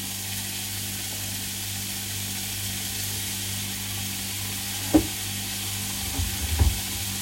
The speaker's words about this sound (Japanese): それで炒めてる間に